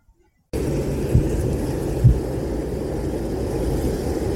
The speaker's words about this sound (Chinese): 大家有没有听到？这是我在徒步的路上，火车经过的声音。我现在在台南，刚才是新市站要走到永康车站的路程